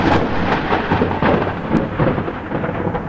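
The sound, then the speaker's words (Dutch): Deep thunder rumbles steadily and loudly through a storm, with a dense wash of rain hissing underneath and no voices present. “Want bliksems die kuisen de lucht, blijkt uit nieuw onderzoek.”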